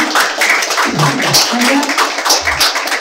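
An audience applauds in thanks at the close of an evening talk on political autonomism, aesthetic activism and design in contemporary metropolises, a dense, steady wash of many hands clapping at once, fairly loud and continuous, with no one speaking over it.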